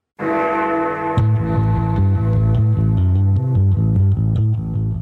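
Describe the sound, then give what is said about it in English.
Upbeat 90s-style electronic background music from the Windows 98 tutorial, with a steady synth bass line, bright layered keyboard chords and a regular rhythmic pulse playing throughout, no voices. “What you're hearing now is that awesome tutorial track, which is about as 90s as it gets.”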